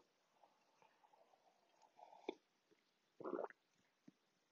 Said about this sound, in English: Coffee sip.